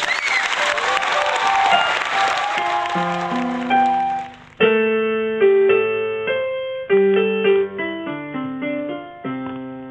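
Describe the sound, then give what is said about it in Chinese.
An audience claps steadily for about four seconds to welcome a challenger contestant, a dense, loud patter that fades as an instrumental melody with clear sustained tones begins and carries on to the end. “来，让我们掌声欢迎他。”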